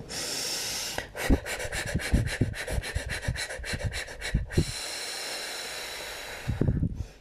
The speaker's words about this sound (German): Das wäre das Hecheln holst du Luft, machst deinen Mund ganz spitz und pustest ganz viele kleine Kerzen aus. Kurz Luft holen.